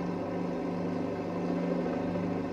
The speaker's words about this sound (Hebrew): תכין את האפקט של המסוק ותיכנס עם הדיווח שלך.